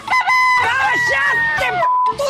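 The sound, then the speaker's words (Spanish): A rooster crows loudly, a long strained cock-a-doodle-doo with a rising and falling harmonic call, heard on its own with no voices. “Uno piensa, uno siempre tiene los dibujitos y ruido el gallo, al menos, pero hay que estar en la cama detonado y que dice?”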